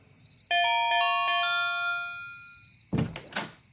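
A doorbell at Dick Bando's house, rung by Detective Haartte well past midnight, chimes a quick descending run of bright, ringing notes that linger and slowly fade, followed by a couple of dull thumps near the end.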